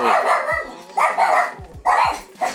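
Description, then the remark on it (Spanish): Dogs bark excitedly in quick, overlapping bursts, several sharp yaps with brief pauses between volleys, loud and agitated with no one speaking. “Problemas técnicos, perritos vueltos locos.”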